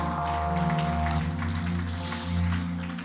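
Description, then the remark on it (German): A church audience applauds God after a prayer, clapping steadily for a few seconds, blending with sustained, droning keyboard chords that hold underneath at an even volume. “Lass uns Gott nochmal einen riesen Applaus geben.”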